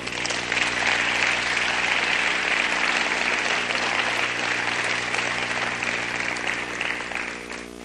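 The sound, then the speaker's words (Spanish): A large crowd claps loudly and steadily for several seconds, a dense wash of applause that fills the room and tapers only slightly near the end. “Ese aplauso debe estar más fuerte, por favor.”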